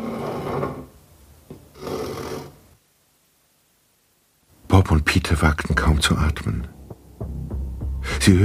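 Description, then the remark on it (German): A wooden chair is scraped into place across the floor, with rough, grinding drags and clunks. It follows muffled voices and a short silence. “Seiten wie ein Stuhl zurechtgerückt wurde.”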